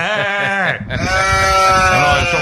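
A goat bleats loudly, two wavering, drawn-out calls with a brief break between them, the second one stretching on with a shaky, quavering tone.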